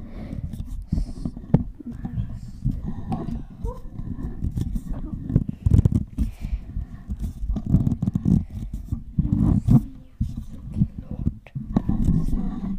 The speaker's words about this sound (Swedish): Men jag kommer försöka ta ur den här mikrofonen ur.